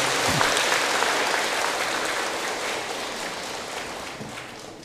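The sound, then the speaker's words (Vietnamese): A crowd claps steadily, a dense wash of many hands that stays loud throughout and eases off slightly toward the end, with no voices over it. “nếu thấy việc làm này đó là dễ trong tầm tay thì tất cả hãy dâng cao tràng pháo tay để cam kết”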